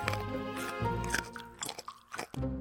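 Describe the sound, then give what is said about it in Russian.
Crunchy chewing of a carrot, with several irregular bites and crunches over a couple of seconds and no talking. “А Жихарка не орет, а ест морковку.”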